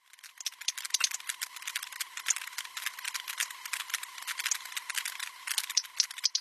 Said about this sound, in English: So in that recording, you not only have whales echolocating in the background, which is just kind of the popcorny underlying sounds. But you also have boat noise, which is that sort of whirring engine